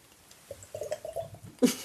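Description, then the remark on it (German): Someone downs a shot of dark schnapps, with a short run of wet gulping and swallowing sounds, then a sudden louder burst at the end, like a sharp exhale. “Wir trinken jetzt was Dunkles, ne?”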